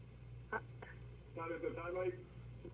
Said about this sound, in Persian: تاخیر داره صدا خوب هستی شما عزیز جان تلویزیونتون رو خاموش کنید اول برنامه توضیح دادم بله با تلفن صحبت کنید